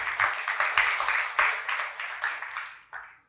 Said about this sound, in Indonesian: Tepuk tangan untuk Tuhan Yesus.